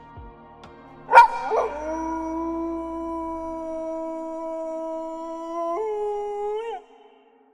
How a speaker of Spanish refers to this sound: importante también es que algunos sonidos son tan únicos que una vez que uno los oye jamás podrá olvidarlos, como por ejemplo el aullido de un lobo.